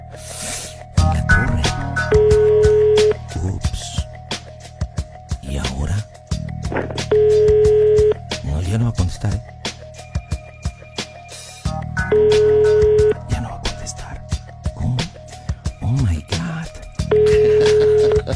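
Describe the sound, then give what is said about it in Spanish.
A phone call to a home phone rings out repeatedly with no answer: four steady ringback tones, each about a second long, spaced roughly five seconds apart, over a busy background with muffled voices. “No contesta, ¿no tienes otro teléfono donde podamos localizar a tu tía?”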